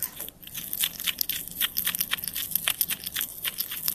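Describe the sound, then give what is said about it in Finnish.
A small mammal chews food, with quick, steady crisp crunches and nibbling clicks filling the whole stretch, and a plate clinks. No one speaks. “Mutta tässä on yksi nisäkäs joka tapauksessa, joka mussuttaa.”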